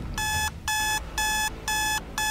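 An electronic alarm clock beeps five times in a steady, rapid rhythm, each tone bright and loud, with a low background rumble and no voices.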